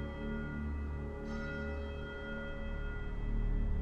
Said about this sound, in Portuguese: O templo possui uma torre estreita contendo um grande sino de bronze e vitrais que retratam imagens do nascer do sol, de árvores e unicórnios. A porta da frente do templo está aberta e o sino está tocando incessantemente.